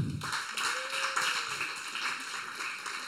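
A steady wash of audience applause, many hands clapping together in a dense, continuous patter that holds at an even level for a few seconds with no voices over it.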